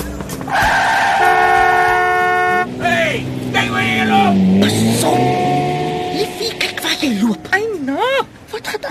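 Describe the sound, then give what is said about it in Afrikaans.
A truck's loud, sustained horn blares, then tyres screech in a long, wavering skid as the truck brakes to a halt when a person nearly walks in front of it, with a brief shout near the end. “Ja, so amper het jy voor daai trok ingestap.”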